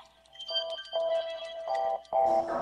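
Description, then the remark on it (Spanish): Four sustained, ringing church bell tones from the Iglesia de la Compañía sound one after another at a steady pace, bright and clear with no talking, marking a quarter past eight in the morning. “Ahí, ahí están las campanas. son las ocho y cuarto, señores.”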